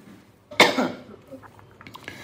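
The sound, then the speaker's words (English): A single sharp cough bursts out during a phone call and trails off quickly, followed by near quiet with a few faint rustles; no one speaks. “Do you want me to not cough with you on the call?”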